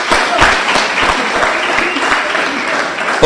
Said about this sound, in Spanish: Démosle un aplauso a nuestro Señor Jesucristo.